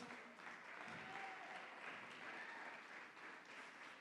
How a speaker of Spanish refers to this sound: Dale el mejor aplauso a nuestro Dios.